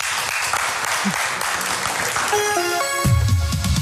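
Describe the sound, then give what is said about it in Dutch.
A crowd at BNR Nieuwsradio's The Green Quest awards claps steadily for three contributors in a dense, loud wash of applause; partway through, a bright descending musical jingle rises over it and a low bass tone enters near the end. “En een groot applaus voor jullie.”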